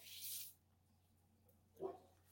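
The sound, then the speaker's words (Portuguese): A single short, faint dog bark comes near the end after a brief hissing burst and a quiet pause with low background hum. “Até que custou o latido do cachorro.”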